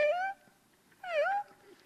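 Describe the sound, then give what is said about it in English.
A voice imitates the wheezy squeak their own lungs made while lying with their head on a pillow, resembling a cat's meow: two short, high, whining squeaks with a separating pause, clear, no talking. “because of the way my head was on the pillow, it was just kind of this squeak coming out.”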